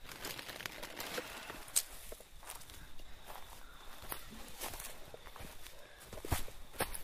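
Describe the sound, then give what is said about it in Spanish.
Footsteps crunch and shuffle across a rough, crinkly surface, a steady irregular series of soft scuffs and brushes with a few sharper snaps, fairly quiet throughout with no talking. “Bueno, escucho tu pie.”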